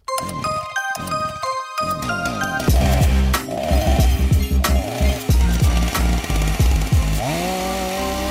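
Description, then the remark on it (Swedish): A power saw roars loudly, its engine revving up and down several times in uneven bursts, after a few seconds of bright tinkling chime notes at the start. “Då är sågen framme igen”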